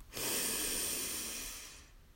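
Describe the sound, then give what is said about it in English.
A long, deep inhale through the nose while extending the belly, part of a guided deep-breathing exercise, a steady airy rush lasting nearly two seconds, fairly loud, with no talking. “So just take a nice, long, deep inhale, extending your belly”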